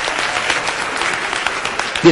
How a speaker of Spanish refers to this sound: Aplaudan los chavos, por favor.